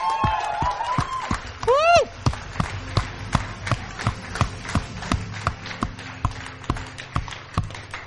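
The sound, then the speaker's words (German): An audience at an Easter church service claps and cheers for Jesus, with a rising whoop early on, then settles into steady, fairly rhythmic clapping that carries on. “Und lass uns ihm einen fetten Applaus geben.”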